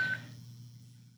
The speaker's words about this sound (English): That alarm must go.